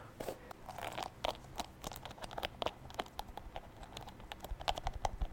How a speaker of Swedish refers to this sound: Alltså jag vet inte, det här kanske inte låter nice. Det kanske bara låter som att jag typ river av mitt hår.